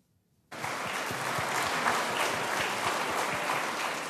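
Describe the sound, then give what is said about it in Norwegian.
Applause from a large crowd greeting Petro Poroshenko as he declares victory in Ukraine's presidential election in the evening, bursting in after a half-second of silence and continuing steadily, a dense wash of clapping with individual claps popping through, loud and sustained to the end. “Én tydelig fornøyd Petro Porosjenko ble møtt av applaus da han i går kveld kunne slå fast at han blir Ukrainas neste president.”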